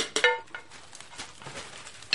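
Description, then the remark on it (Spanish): Dishes clatter as a woman empties a dishwasher in a large kitchen: a couple of sharp, ringing clinks near the start, softer knocks and shuffling in between, and another bright clink at the end. Quiet, with no talking. “Entra en una amplia cocina donde una mujer rubia vacía un lavavajillas.”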